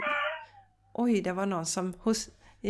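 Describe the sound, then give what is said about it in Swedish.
A dog whines once at the start, a high, drawn-out cry that trails off and fades, before a person begins speaking. “ja, det är min hund som undrar vad jag sitter här inne och gör.”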